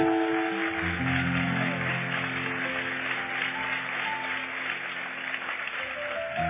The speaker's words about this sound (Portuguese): Irmãos, qual é a igreja que tem um coral que fica o tempo todo nas missões, nos hospitais, nos asilos? Você pode aplaudir o Senhor por eles?